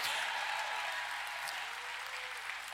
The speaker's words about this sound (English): Everybody, take a praise break and open your mouth and clap your your hands and shout if you've got a little bit of faith, a little bit of hope.